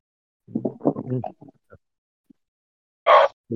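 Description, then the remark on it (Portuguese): A voice imitates a goat-like scream coming from a goat-head figure on a shield: rough, guttural bleating sounds, a pause, then a loud, harsh squealing cry, followed by the start of another. “Nesse momento que o que esse feitiço pega nele, uh, do teu escudo sai um berro, né, da, da carranca de bode que tem ali.”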